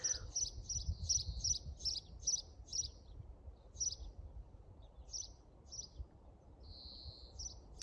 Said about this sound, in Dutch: Als je de vogel hoort die met mij meekwettert.